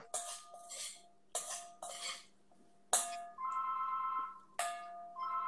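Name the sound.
phone ringing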